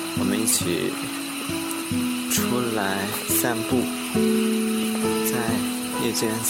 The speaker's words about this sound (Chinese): 在田的两边都有很吵的蛙鸣声。